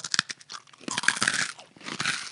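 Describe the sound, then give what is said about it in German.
Crunchy chewing of a hard, lemon-flavoured sweet, with a quick series of sharp crackling bites followed by denser grinding crunches, no talking. “Ich probiere es mal kauen.”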